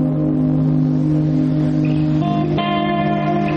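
Heavy traffic filling the roads: a steady engine drone from cars, a low humming rumble that holds throughout with a brief shift in pitch near the end as a vehicle revs. No voices.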